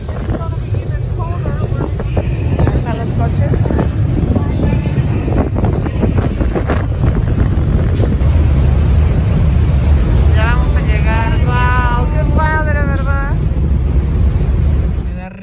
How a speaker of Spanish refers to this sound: Entramos con todo y coche al barco. ya se está moviendo, vean. Al ferry. ¡Vámonos! Hacia la montaña. aquí vamos, en el Washington State Ferry.